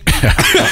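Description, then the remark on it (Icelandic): A person coughs in a quick, harsh burst of several rough, choking coughs, loud and continuous, after a drink went down the wrong pipe. “Þetta fór hún í vittlust að pípu hjá mér, sko.”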